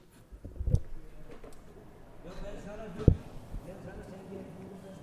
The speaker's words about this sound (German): das sind eigentlich zwei alte Männer, die kiffen immer vor meinem Haus und zwar Hasch. Die dürfen endlich mal raus und dann kiffen die und reden ganz, ganz, ganz laut